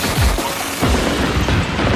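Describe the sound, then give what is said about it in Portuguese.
A rapid barrage of 47 rockets exploding, booming and crackling over one another in quick, dense succession, loud and continuous for the full two seconds with no voices. “E a lenda diz que quando o fumo da explosão dos 47 foguetes assentou, nunca mais ninguém viu nem o Anhu, nem a cadeira.”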